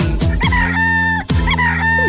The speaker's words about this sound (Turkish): horozları var